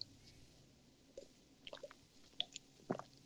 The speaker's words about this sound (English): Uh, I will take you through the injuries now after I take a cool sip of nice, clean, clear, beautiful water.